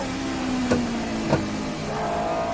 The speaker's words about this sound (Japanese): 彼はギアを入れて速度を上げるホンダの V12 エンジンがうなりを上げ時速160キロを超えるスピードで直線コースを走り抜け